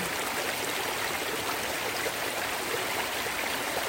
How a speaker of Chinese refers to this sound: 大家来听听这个流水声，多么疗愈啊！